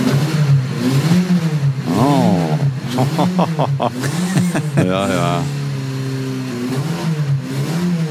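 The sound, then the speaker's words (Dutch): The engine of a 1962 Carrera 2-litre convertible, a 356 classic sports car, revs in several rising and falling bursts, a throaty mid-pitched roar, while people laugh and exchange a few brief words over it. “Een Carrera 2 liter cabrio uit 1962. Nou, laat ik die nou net klaar hebben staan.”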